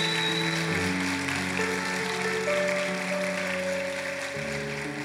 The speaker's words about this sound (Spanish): ¿Cuántos creen en esa palabra? Dele un fuerte aplauso al Señor por eso.